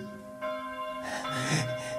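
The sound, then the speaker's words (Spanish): Church bells ring out in a village with long, sustained humming tones, a fresh peal swelling in partway through and layering over the fading ones, with no talking. “Oye esas campanas.”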